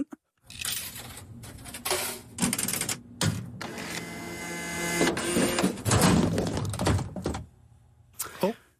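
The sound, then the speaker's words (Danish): A gum vending machine grinds and whirs through several bursts of mechanical churning, ending in a clunk as a pack of gum drops out. “Det var en pakke tygummi. Fra en automat.”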